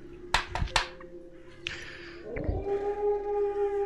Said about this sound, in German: Da ist wieder die Sirene.